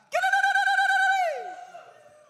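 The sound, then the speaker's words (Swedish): A single voice lets out a high, rapidly warbling ululation, a jubilant trilling cry in the way Middle Eastern people cheer, held for about a second before it slides downward and fades. No other voices accompany it. “Fortfarande idag, Mellanöstern folk, när de jublar, de gör så här.”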